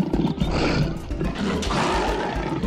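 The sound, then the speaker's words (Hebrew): A lion roars loud, a deep rumbling growl that swells and holds for a few seconds with a rough, throaty texture and no talking. “האויב העיקרי של הג'ירף הוא האריה.”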